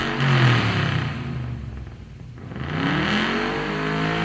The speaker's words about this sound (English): That sounds like a gas engine.